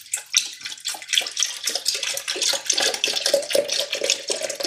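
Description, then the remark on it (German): 600 milliliters of milk pour steadily into a container, a continuous splashing gurgle that keeps going for several seconds with no one speaking. “Die gieße ich auch mal ein.”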